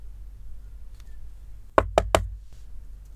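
Three quick, firm knocks on a friend's room door at a women's dormitory, evenly spaced, with a low rumbling background and no voices.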